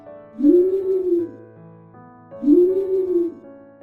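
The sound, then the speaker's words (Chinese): An owl hooting twice, each a deep, rounded hoot that rises slightly and falls, evenly spaced about two seconds apart, with a faint steady hum of background tones underneath. “声音浑厚有质感的猫头鹰奶奶。”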